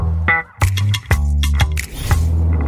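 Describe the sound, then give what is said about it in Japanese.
Steady low engine drone inside a Delica Mini kei car cruising at speed on an expressway, broken by several sharp clicks and knocks from handling; no one speaks. “高速今走ってますけどどうですか感想として僕軽自動車って、うん、ごめんなさいねこれ正直な話、うんそこまでパワーがないっていうか、まあ、不足するかなと思ったんですけど、この車全然そういう感じないですね。”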